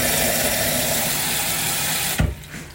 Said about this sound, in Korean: 그렇죠. 화병 소리. 어, 화병. 안에서 이제 물 들어가는 소리 약간 좀 이거 그거 같아. 옛날에 델몬땡의 그 오렌지 주스 소리. 유리병에.